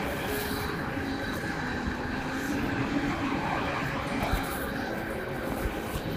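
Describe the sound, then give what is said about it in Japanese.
A train runs steadily alongside, a continuous low roar with rattling wheel and carriage noise that holds at an even, fairly loud level throughout. “あと、横がね、電車でっていう。”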